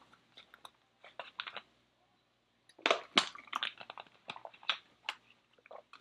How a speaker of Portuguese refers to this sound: É, enfim, deixa eu dar um gole de água aqui, calma aí.